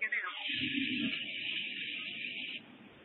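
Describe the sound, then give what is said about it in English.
A hot air balloon burner at the Balloon Fiesta fairgrounds roars in one steady, breathy blast with a low rumble underneath, lasting a couple of seconds before cutting off, with no voices. “As soon as they put the burner on, I'll, I'll show you how we know that uh, there's balloons.”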